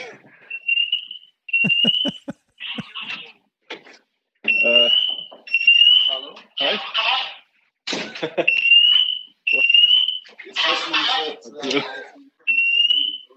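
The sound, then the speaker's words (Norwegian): A fire alarm goes off, sounding a series of loud, high-pitched electronic beeps at irregular intervals while people talk between and over them. “Det var en alarm som gikk.”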